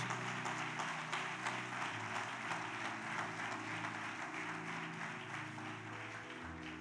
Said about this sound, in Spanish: Dele ese aplauso a Jesús.